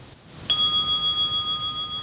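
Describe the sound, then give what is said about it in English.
A single bell of a meditation timer app, marking the start of the meditation countdown, strikes sharply and then rings on with a clear, steady tone, several pure overtones sustaining and slowly fading with a gentle wavering shimmer, alone. “it'll start counting down as the bell rings, and then it rings your bell, same bell at the end of the meditation time.”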